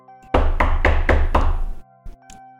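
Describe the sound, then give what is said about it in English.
A series of five firm, evenly spaced knocks on a wooden door, resonant, followed by a couple of fainter thuds after a brief pause. “So you finish dressing and you hear a bell tower ring outside your window, and right around then there's a knock at your door.”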